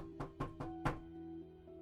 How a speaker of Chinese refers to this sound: 果然，第二天晚上，长毛半夜睡觉的时候就听到有人敲门。